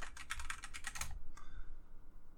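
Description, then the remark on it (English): A quick run of about ten crisp key clicks on a computer keyboard, fairly loud, as a search for Mahayana is typed into Google, followed by a single last tap after a short pause; no one speaks. “When I when I Google Mahayana, the first result is uh, Buddhism.”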